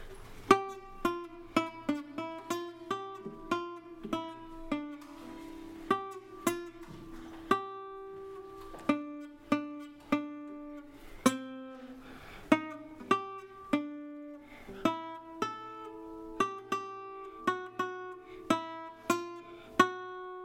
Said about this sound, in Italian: suonerà per voi un brano di chitarra. Lo annuncerà così, ci farà sentire delle note tutto esclusivamente dal vivo.